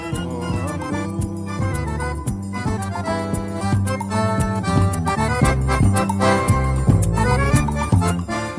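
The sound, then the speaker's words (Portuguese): Lively baião music plays throughout, with instruments over a steady, bouncing percussion beat, full and loud from start to finish, with no voices. “Com certeza você sente vontade de dançar só de ouvir esses instrumentos tocando.”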